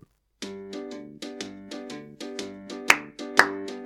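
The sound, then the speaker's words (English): A bouncy, rhythmic instrumental riff of repeated plucked notes for the Jason Garrett's corner segment, joined near the end by two sharp, loud hand claps landing on the beat as everyone claps along. No one speaks. “but everybody get your hands ready to clap along.”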